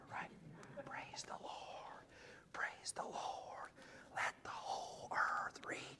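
A worship audience whispers together the song lyrics shown on a screen behind them, in a hushed, breathy murmur rising and falling in soft phrases for several seconds, with no clear singing or speech standing out.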